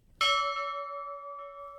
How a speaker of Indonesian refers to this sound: Jadi, setiap kali ada ketidaksesuaian prosedur di kisah Raffio ini, gue akan membunyikan bunyi bel. Kayak gini nih.